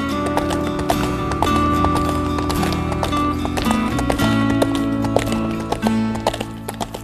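Steady horse hooves clip-clop in a brisk, even rhythm for several seconds, layered over a sustained tonal musical backdrop, with no talking.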